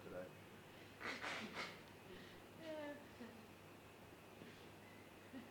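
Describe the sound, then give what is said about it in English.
A person blows their nose in two or three short, breathy honks, followed by a brief murmur of voice and quiet shuffling. “Okay, I gotta blow my nose.”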